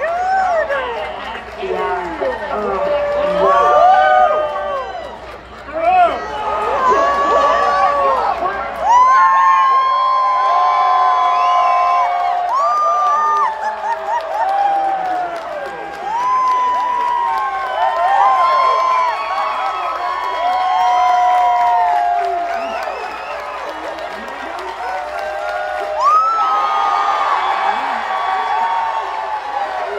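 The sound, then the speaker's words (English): A large crowd at the APL watch party led by Bill Nye cheers and shouts excitedly as new images appear on the big screen, with overlapping voices and whoops swelling in repeated bursts of excitement, loud and continuous throughout. “Listen as the excitement peaks each time a new image appears on the big screen.”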